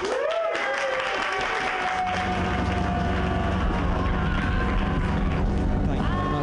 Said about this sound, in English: So I was like, You have a special set. So you guys have to be really special right now and clap even bigger than you've clapped before